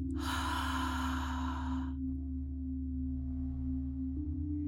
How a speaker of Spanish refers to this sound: Sostén tu respiración por un momento, permitiendo que la plenitud del aire se asiente en tu cuerpo. Exhala fuerte por la boca,